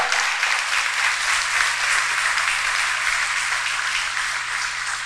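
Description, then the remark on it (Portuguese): A large crowd applauds as praise to the Lord, a dense wash of many hands clapping at once that stays loud and even for several seconds, with no one speaking over it. “Oh, você pode dar um aplauso ao Senhor por isso?”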